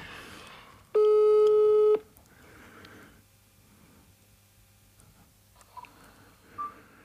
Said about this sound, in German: Den rufe ich doch jetzt hier mal äh, live an und frage den mal. Guck mal gucken, ob der überhaupt ans Telefon geht.